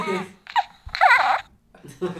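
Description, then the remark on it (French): A realistic, near life-size plush toy gives a short, high, wavering baby-like cry, about half a second long and fairly loud, between brief bits of an adult talking. “Ou j'ai l'impression quand même qu'on dirait plutôt le bruit d'un bébé, d'un vrai bébé, euh, d'un vrai bébé euh, plutôt qu'un bébé gros goût.”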